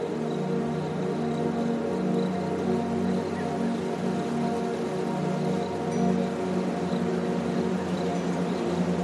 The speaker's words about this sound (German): Hör nur, der Wind, wie leise er die Nacht in die Stadt bringt und den Tag davonträgt. Es ist, als würde er uns den Weg zeigen.